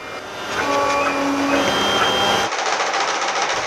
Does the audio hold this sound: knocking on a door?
no